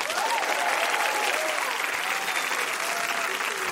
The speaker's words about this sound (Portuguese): Palmas para o menino de palmas, Paulo Vieira!